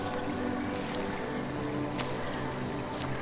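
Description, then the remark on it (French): A small stream of clear water runs steadily over stones, a continuous rush of water with a bright, even hiss and faint low burbling underneath, no voices present. “Jusqu'à ce que tu arrives à ce petit ruisseau passant entre les pierres, et dont l'eau est transparente et te permet d'en voir le fond.”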